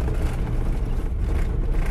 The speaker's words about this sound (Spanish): Hoy está en movimiento, ahora mismo. Estoy por un carril de tierra, un camino rural. Eh, con el coche me dirijo hacia una finca. Seguramente escucharéis el latoneo que decimos aquí de, del coche viejo.